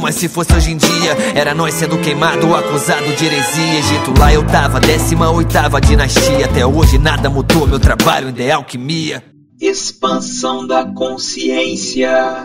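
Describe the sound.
A Portuguese-language rap track with a rapid, rhythmic vocal flow over a dense beat and heavy bass, the music filling the mix until it drops out briefly and returns thinner near the end.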